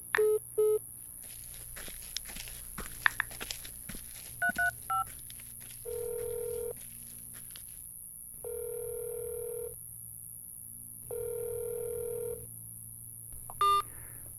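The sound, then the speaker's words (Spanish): A few quick keypad beeps of a phone being dialed, followed by three long, evenly spaced ringback tones as the call goes unanswered, then one more short beep at the end. No one speaks. “Oh, y este otro que no me contesta ahora.”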